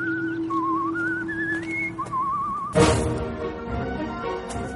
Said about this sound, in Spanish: el mejor guiño es cuando este señor, este nuevo demonio, empieza, comienza a caminar en la ruta y silba esta canción.